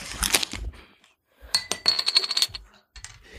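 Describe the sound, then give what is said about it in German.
A beer coaster tossed down onto a hard surface, landing with a clatter and then rattling and spinning briefly as it settles, fairly loud, with no talking. “Ich schmeiß jetzt mal einen Bierdeckel hin.”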